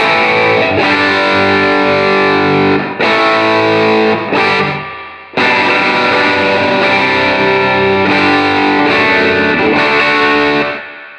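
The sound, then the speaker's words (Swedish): A loud electric guitar played through a warm Wampler Tumnus Germanium overdrive pedal, strumming gritty sustained chords in several phrases separated by brief pauses, with no one talking. “I veckans pryl är det världspremiär på Wampler Tumnus Germanium.”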